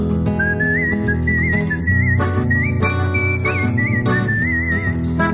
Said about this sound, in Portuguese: E um cantador se anuncia num assobio afinado